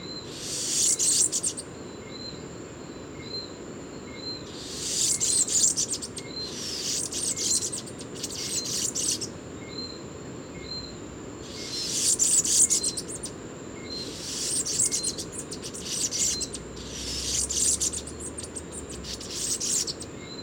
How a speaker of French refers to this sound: Alors le sucrier à ventre jaune est un oiseau en partie nectarivore, c'est-à-dire qu'il euh, il visite les fleurs pour euh, manger le nectar, pour sucer le nectar, mais il mange aussi les fruits et puis euh, éventuellement des insectes.